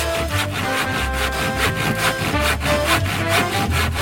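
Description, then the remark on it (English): A handsaw cuts through wood in steady, rhythmic back-and-forth strokes, each pass a loud, raspy scrape, repeating about twice a second, with no voices. “Of course, it was the sound of a handsaw.”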